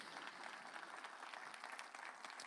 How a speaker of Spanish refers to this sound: Así que dense un aplauso a ustedes, por favor, por estar aquí.